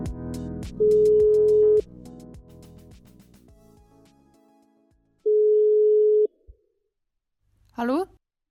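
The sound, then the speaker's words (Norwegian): A telephone ringback tone: two steady, loud one-second beeps several seconds apart, the first over faint background sound, followed by a brief voice answering the call at the end. “… tar telefonen, og vi småprater litt”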